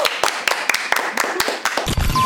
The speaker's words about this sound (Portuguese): Então, gente, vou pedir pra gente encerrar com palmas aqui, porque foi muito da hora.